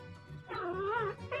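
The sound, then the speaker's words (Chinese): A tabby cat yowls loudly in a long, wavering, drawn-out cry, then starts a second shorter wail. A low rumbling background sits underneath throughout. “他大声吼叫，老鼠们吓得东窜西逃。”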